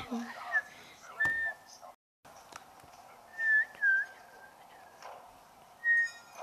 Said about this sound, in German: kann nicht pfeifen, Junge.